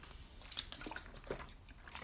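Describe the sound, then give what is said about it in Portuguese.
Quiet sipping and swallowing of water, with a few soft wet clicks and gulps spread over two seconds against a low background hiss. “Bebi aqui uma aguinha para hidratar.”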